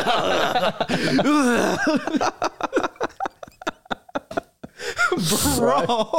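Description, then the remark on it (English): A voice imitates a sick man's hacking cough at 2 a.m., a run of sharp, rough bursts in quick succession, mixed with breathy vocal sounds and a chuckle, fairly loud. “And he, this guy was just hu- like hucking, like hacking his lungs away the entire night.”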